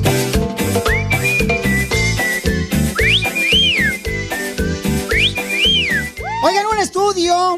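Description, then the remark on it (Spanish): Someone whistles a bright melodic tune over loud, rhythmic background music, with rising and falling glides, ending in a burst of quick wavering whistled notes. “Me enteré, paisanos, de que cada familia latina tiene un silbido, un chiflido que identifica a cada uno de nosotros.”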